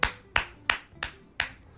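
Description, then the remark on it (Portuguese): A single person claps their hands six times at a steady, brisk pace. Each clap is sharp, with no talking underneath. “Palmas pro fio.”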